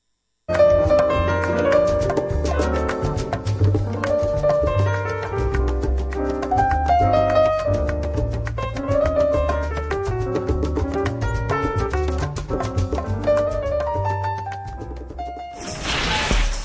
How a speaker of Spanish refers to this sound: Pero en fin, eh, para seguir adelante con este análisis, vamos a ir a una breve pausa musical y regresaremos.